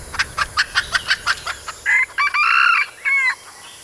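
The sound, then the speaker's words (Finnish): A rapid run of about a dozen sharp clucks, then a red junglefowl rooster lets out a loud, broken crow in several segments. No voices. “Kanan esimuoto on punaviidakkokana, joka elää yhä luonnonvaraisena Kaakkois-Aasiassa ja Intiassa.”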